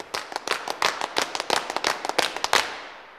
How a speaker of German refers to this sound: dem sogenannten Paschen, dem gemeinsamen rhythmischen Klatschen in der Wirtshausstube